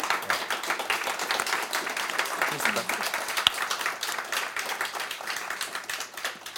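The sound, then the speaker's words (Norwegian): Sustained audience applause for visiting guests, thanking them for their contribution and for coming, a dense steady wash of many hands clapping for several seconds, with a brief spoken thanks heard over it. “Jeg tror vi gir dere en stor applaus og sier takk for bidraget og takk for at dere kom.”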